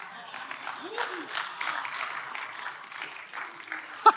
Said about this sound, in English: I'm so glad people clapped.